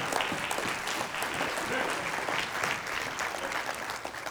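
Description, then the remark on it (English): Steady applause from a large group giving God a hand clap, dense overlapping hand claps forming a continuous crackling wash that holds at an even loudness throughout, with a few voices faintly mixed in. “Give God a hand clap.”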